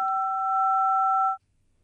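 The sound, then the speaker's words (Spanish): A single steady telephone keypad tone, two pitches sounding together, holds loudly for over a second on a phone call line, from phone keys being pressed during the call, and then cuts off abruptly into near silence. No one speaks. “me parece que estamos teniendo ahí un problema, como que se estuvieran marcando eh, las teclas del teléfono.”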